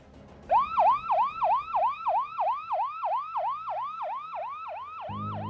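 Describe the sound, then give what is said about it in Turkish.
A fast, wailing ambulance siren yelps in rapid rising-and-falling cycles, starting loud, then steadily fading as the ambulance drives away down a street, with a low traffic rumble at the end. “Sokakta feryat figen sireniyle uzaklaşan ambulansı yolun karşısında duran bir adam izliyordu.”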